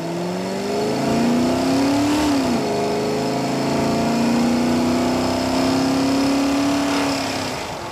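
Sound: car accelerating hard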